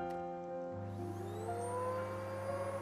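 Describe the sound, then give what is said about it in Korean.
A vacuum cleaner, run by a father cleaning at home, hums steadily, its motor note rising and whining upward about a second in as it spins up, then holding a loud, continuous drone with no talking. “몇 년째 집에만 계시는 지연이 아빠가 오늘도 청소기를 돌리시며 씁쓸한 웃음으로 나를 맞아주신다”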